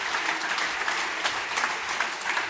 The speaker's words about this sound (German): Einen ganz großen Applaus bitte für dieses grandiose Orga-Team. Dankeschön.